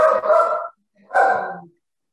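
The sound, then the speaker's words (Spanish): A female dog gives two drawn-out, whining barks separated by a brief pause, fairly loud, in the background behind the speaker, with no one speaking over them. “Disculpenme, perrita ahí atrás que está gritando.”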